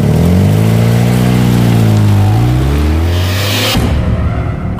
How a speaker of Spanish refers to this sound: Adaluz no lo pensó dos veces. Se subió al carro con Blanca y arrancó a toda velocidad.